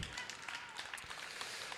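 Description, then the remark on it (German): An audience claps steadily for a performer after a score of 26 points is announced, a dense wash of many hands that stays fairly even throughout, soft rather than loud. “Der Rest wird zusammengezählt und gibt 26 Punkte und Applaus”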